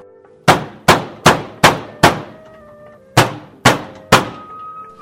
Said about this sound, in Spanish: vaya a ver quién toca la puerta. Sí, mamá, bajo enseguida.